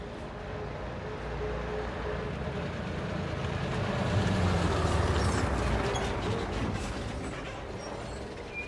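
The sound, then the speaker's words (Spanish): A coach bus heading to Aigüestortes and Lake Sant Maurici drives along with a steady engine rumble and road noise that swells slightly midway, then holds constant. No one speaks. “Cogemos nuestro coche de línea y nos vamos al paraíso.”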